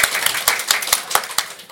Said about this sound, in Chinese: 哎，先鼓掌就先鼓掌。